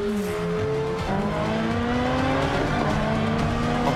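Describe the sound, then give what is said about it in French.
A race car engine roars loud in a film race scene, its pitch climbing as it accelerates hard, with tire noise mixed into the steady, dense rumble of racing. “essayer de faire décoller sa voiture”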